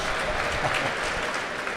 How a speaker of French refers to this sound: Est-ce qu'on peut donner une bonne main d'applaudissement à la légende? Robert Monsieur Lepage. Robert Lepage.